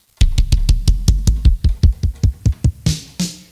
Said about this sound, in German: Bassdrums.